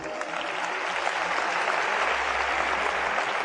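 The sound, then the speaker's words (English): Steady audience applause for a list of nations fills the whole stretch, a dense, even wash of many hands clapping at a constant moderate loudness with no speech over it. “Clap for the nations.”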